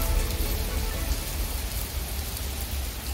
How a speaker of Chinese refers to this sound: 下雨啦，下雨了，人们就像做梦一样，开心极了。